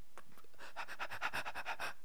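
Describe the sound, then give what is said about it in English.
A person imitates a dog's panting to show panicky breathing: quick, breathy huffs in a steady rhythm, fairly quiet, about a dozen short bursts after a brief pause, with no talking. “You're not a dog.”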